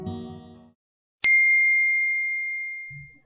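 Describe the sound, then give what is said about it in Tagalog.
A phone's text message notification: a single clear electronic ding rings out sharply, then its bright tone sustains and slowly fades. A brief murmur of voice precedes it and a faint sound follows. “Ah, ito, nag-text na malapit na siya banda.”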